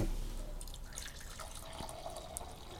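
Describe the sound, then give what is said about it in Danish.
Coffee being poured into a cup: a quiet, steady trickle of liquid with a few brief higher splashes and drips, lasting a few seconds with no one talking. “Kaffe? Ja, tak. Så gør vi lige her med noget.”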